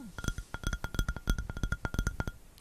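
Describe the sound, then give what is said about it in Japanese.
Rapid fingernail tapping, a steady stream of sharp, clicky ticks with a bright, hard edge, repeating in quick uneven bursts without any voices. “これはネイルタッピングですね。”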